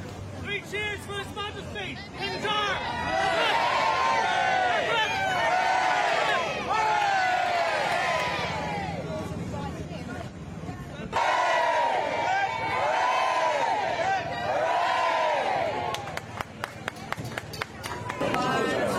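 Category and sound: crowd, cheering crowd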